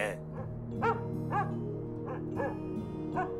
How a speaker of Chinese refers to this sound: 这时。园丁的狗叫了起来